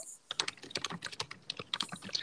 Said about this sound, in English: Wow. Somebody's typing away. I can hear that.